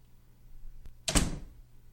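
A door swings shut and latches nearby: a faint click, then one solid thud with a brief rattling decay. No one speaks.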